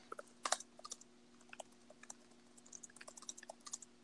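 Rapid, irregular clicking of keys on a computer keyboard, steady, with a faint constant electrical hum underneath and no voices.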